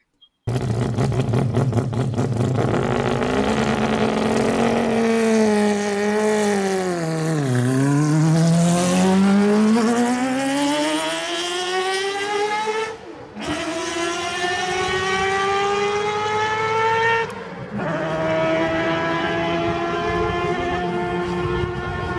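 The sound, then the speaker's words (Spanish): A Mazda 787B's R26B rotary race engine screams loudly and alone, its pitch dipping then climbing as it revs, with two quick breaks like gear shifts before it climbs again. “Pues eso que escucharon era el, el motor, eh, o sea, el nombre del motor es el R26B, que como ya les dije antes es el motor del 787B eh, de Mazda que, compitió en Le Mans.”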